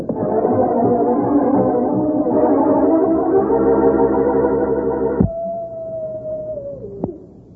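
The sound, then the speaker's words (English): Several wolves howl together in long, overlapping wails, then a single howl carries on alone and slowly slides downward before fading. No one speaks. “Oh, wolves! Wolves! And they're closing in.”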